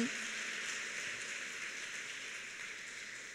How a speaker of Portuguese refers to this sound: Você pode dar um aplauso para o Senhor?